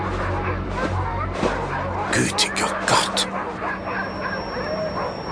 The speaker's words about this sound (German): Was, was ist mit den Hunden los? Was ist das für ein Geräusch?